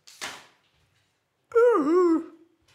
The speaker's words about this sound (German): Das war das Geräusch des Schwans.